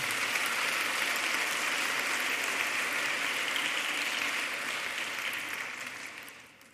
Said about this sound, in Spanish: Dar un aplauso a Dios.